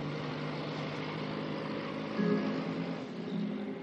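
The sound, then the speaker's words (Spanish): A convertible car's engine hums steadily with a low, droning pitch over constant road and wind noise, swelling slightly midway as the vehicle drives off along a deserted road without any voices. “El vehículo descapotable se marcha circula por una carretera desierta.”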